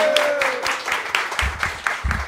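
A live audience at a show recording breaks into steady applause, a dense crackle of many hands clapping at once that holds at an even level for a couple of seconds with no talking.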